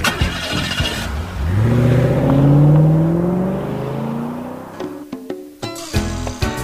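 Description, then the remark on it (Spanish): A car engine revs loudly, its pitch climbing in a long rising sweep before easing off, followed by a few sharp, punchy hits, in an advertisement for Gulf engine lubricants. “Dele a su motor lo que se merece.”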